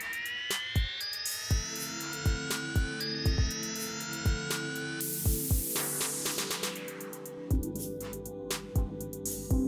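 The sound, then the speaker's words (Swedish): Pink rosé champagne fizzing and bubbling in a glass: a steady hiss scattered with sharp little pops and crackles, with a faint ringing tone that rises gradually. No one speaks. “hör man det här underbara bubblande som vi har?”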